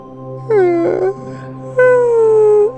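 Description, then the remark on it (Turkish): Two loud, exaggerated fake yawns from two friends pretending to be sleepy, each a drawn-out, whiny vocal tone that slides down in pitch. The second is longer than the first, with a short pause between them. “diye sesler çıkararak kocaman esnemeye başladılar.”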